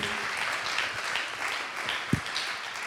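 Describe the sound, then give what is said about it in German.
An audience applauds steadily as a speaker comes on stage, a dense wash of many hands clapping at an even level for the whole stretch, with one sharper thump partway through and no voices. “Ein Applaus und er wird euch noch ein bisschen weiter was erzählen.”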